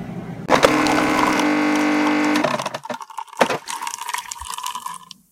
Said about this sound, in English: Noise you heard at the beginning, that's my coffee maker, Rhonda.